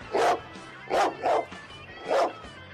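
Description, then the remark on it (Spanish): A dog barks four times in short, irregular woofs, two of them in quick succession, clear with nothing else going on. “¿No es cierto, perro?”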